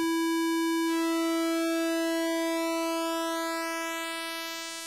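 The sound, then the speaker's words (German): A steady, buzzy synthesizer square-wave tone holds one pitch alone while its pulse width is narrowed, the timbre gradually thinning and shifting until the square wave disappears, fading slightly at the very end. “dann wird sozusagen die Schwingung gestaucht, dass eben das Positive immer mehr verschwimmt, bis die Rechteckwelle weg ist, weil es eben keine Schwingung mehr in positiver Richtung gibt.”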